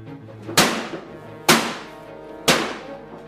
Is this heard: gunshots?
yes